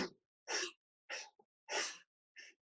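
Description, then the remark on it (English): A voice imitates breathless gasping for air: five short, sharp, breathy gasps in an uneven rhythm, fairly loud, with brief silences between them. “I had to sit down and I was the entire time I was gasping. I was kind of like”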